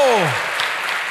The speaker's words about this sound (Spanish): ¿Cuántos dicen amén? Dele fuerte ese aplauso al Señor. Fuerte ese aplauso.